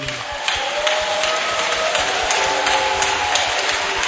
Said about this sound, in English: Why don't you stand to your feet and clap your hands for Jesus